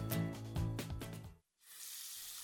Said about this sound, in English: Hey, is that a faucet running? Nope, that's not a faucet. That's a river rushing through the forest.